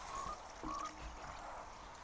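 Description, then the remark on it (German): Two short frog croaks from a video game sound in quick succession near the start, each a brief nasal call, followed by a steady low background hum with no one talking. “Wusstest du, dass wenn man einen äh, Frosch tötet, kriegt man ein Fleisch?”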